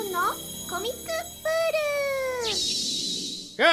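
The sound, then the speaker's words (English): A short run of high, wavering meow-like cries from a cat, several brief ones followed by a longer drawn-out call and a final rising squeal, fairly loud, with no talking. “Hey, cat, you knock that off.”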